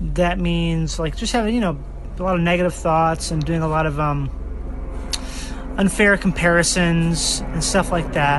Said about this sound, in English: And that's the sound of a helicopter. But I you know, actually like that. I really fucking love that sound. I fucking love the sound of helicopters. I really do. Uh, I'm actually glad it flew over right now.